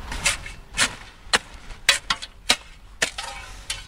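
Someone digging soil with a spade: a series of about eight gritty, crunching scrapes and thuds at an uneven pace, each short and sharp, with no talking.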